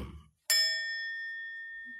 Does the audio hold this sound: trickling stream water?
no